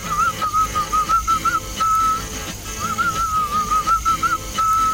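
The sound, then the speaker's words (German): Someone whistles a wavering tune in short phrases separated by brief pauses, fairly loud, with a steady rhythmic musical backing underneath and no talking. “Die wenigsten von uns haben jemals gehört, wie genau es klingt, wenn Hamstrings pfeifen. Nun, es klingt so.”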